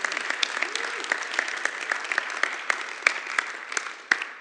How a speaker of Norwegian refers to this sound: Skal vi gi dem en applaus?